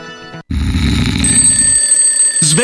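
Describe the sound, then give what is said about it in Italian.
An alarm clock rings loudly in a radio advertisement for Materassi Barone, a continuous jangling, buzzing bell that runs for about two seconds after a brief tonal chime, with no talking. “Sveglia, sveglia!”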